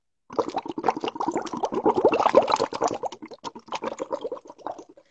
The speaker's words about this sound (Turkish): Dalgıç oluyoruz. Ee, ve bu da dalgıç baloncuklarımız. Dalgıç baloncuklarımız.